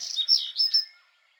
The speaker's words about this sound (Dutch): Oh, en een verrekijker, want op onze camping waren heel veel vogels. Echt heel veel vogels.